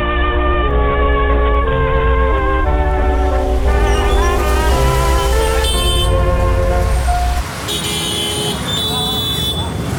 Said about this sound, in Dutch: Ik probeer naar buiten te houden in het drukke verkeer van Colombo. Met grote passen en een breed uitgestoken hand als stopbord... loopt hij tussen de toektoeks en de auto's door.